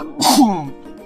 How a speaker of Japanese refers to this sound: あ、入れ歯が今、吹き飛びそうだった。危ね。めんなさい、ごめんなさい。うん。あー、くしゃみしちゃってごめんなさいね。すいません。